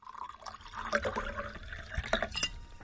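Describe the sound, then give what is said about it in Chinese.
Leftover red wine being poured into a wine glass: a short, steady gurgling splash of liquid with a few bright glassy clinks and a rising fill tone, with no voices. “跟同学们告别回来后，丽景找出之前喝剩的红酒，倒在了酒杯里。”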